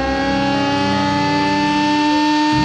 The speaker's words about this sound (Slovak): Přesně ve 12.20 se Prahou rozlehl ostrý hvist sirén.